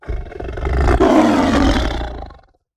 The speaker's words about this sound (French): Prenons un rugissement de fauve.